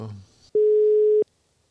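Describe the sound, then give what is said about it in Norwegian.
A brief murmur of voices fades out, then a single steady electronic telephone ringing tone sounds once, loud and clear over the line, on a call that goes unanswered, before cutting off into near silence. “Han tar ikke telefonen, så”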